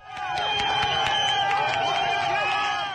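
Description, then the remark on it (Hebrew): A large crowd, unseen in a short video posted online on 30 December 2017 at night, roars and shouts in sustained excitement as a pair of hands pulls at a poster hanging on a pole; many overlapping voices blend into one loud, continuous wall of sound that holds steady for the full few seconds. “ואז ההמון שנמצא מחוץ לפריים ורואים רק את הידיים שלו, שואג באקסטזה”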